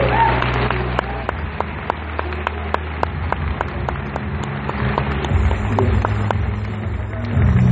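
A crowd claps steadily for several seconds, a dense patter of hand claps with some sharper individual claps standing out, over a low background murmur.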